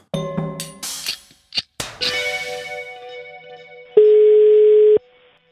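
A phone call's ringing tone on a call placed from Matprat: after some clicks and handling noise, a steady electronic hum rises into one loud, sustained ring-back beep lasting about a second, then stops. No one speaks.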